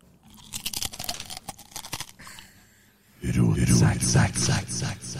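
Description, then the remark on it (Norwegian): Crisp crunching of food being chewed in quick irregular bites for a few seconds, then a voice starts talking loudly and the chewing fades under it. “Tror du får minus på spising i dag?”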